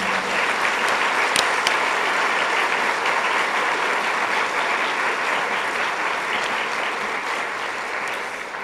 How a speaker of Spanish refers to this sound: Denle un aplauso al Señor, amados hermanos.